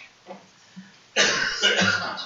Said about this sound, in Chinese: 哎，表演的非常好啊，这就是咳嗽。咳嗽啊，是指肺湿宣降，肺气上逆作声啊。